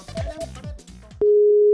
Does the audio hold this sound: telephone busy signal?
yes